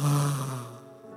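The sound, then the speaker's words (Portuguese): A voice imitates a loud snore, one long buzzing, nasal rasp that starts strong and slowly fades out, heard alone. “roncando para frente e para trás. Tem gente que tem ronco alto reverso ronca para frente, ronca para trás, é uma trombeta, amém?”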